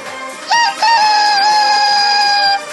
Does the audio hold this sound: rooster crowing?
yes